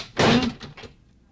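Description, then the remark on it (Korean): A mother's bedroom door is pushed shut as she goes into her room, with one firm, solid thud, followed by two short rattling knocks as it settles, then quiet. No voices are heard. “그날 다친 엄마의 방문은 아주 단단해 보였습니다.”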